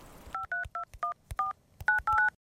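A quick run of short, bright dual-tone beeps from a telephone keypad being dialed, about eight or nine presses in an uneven rhythm, clear with no talking.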